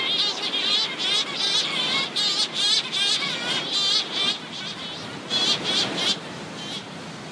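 A dense chorus of shearwater calls, many wavering, overlapping cries rising and falling in bursts without pause, fairly loud, with no one talking.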